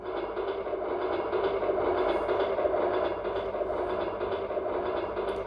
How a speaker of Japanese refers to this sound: うるせえ、びっくりした。これが電車だねえー、すごくないこれ。いろんな高さで電車が通り過ぎる。